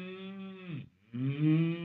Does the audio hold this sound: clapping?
no